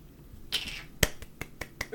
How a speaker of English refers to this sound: Golf clap. You, you, you're celebrating the genius of the work. Can you give it one of the Otto Hightower golf claps? Oh yes, indeed, yes, indeed, yes, bravo.